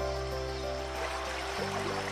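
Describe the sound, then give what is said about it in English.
Steady flowing river water trickles and burbles throughout as a person takes a dip in the river, fairly quiet and continuous, with a soft sustained tonal drone underneath and no distinct splash standing out. “Maria goes forward and takes a dip in the river.”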